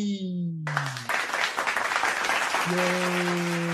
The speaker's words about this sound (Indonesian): Dan sekarang gue kedatangan bintang tamu yang pasti ya, kalau bintang tamu Oscar itu selalu cantik ya, ya sih? Ya, jadi kita sambut aja dengan tepuk tangan yang meriah.